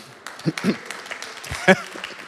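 A short burst of audience applause during a sermon, a patter of many hands clapping at moderate volume, with a brief cheer or shout rising out of the crowd near the end.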